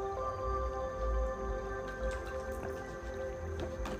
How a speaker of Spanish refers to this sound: Voy a tomar un sorbito de agua.